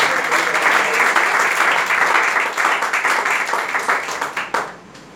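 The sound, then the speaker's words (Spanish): A crowd breaks into sustained applause for the Lord, dense overlapping claps holding steady for several seconds before thinning into scattered claps and fading out. “Si le va a dar aplauso, se al Señor, por favor.”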